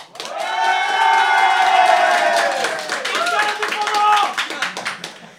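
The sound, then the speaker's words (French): A live audience at the bar Charlie et sa bière à deux balles, next to Saint-Ambroise metro station in Paris, cheers and claps, with loud whoops and sustained high-pitched shouts over a steady wash of applause that stays strong throughout and thins slightly near the end. “Et donc, aujourd'hui, je ne suis pas dans le lieu d'habituel d'enregistrement du podcast, je suis loin d'être seule car nous sommes en public.”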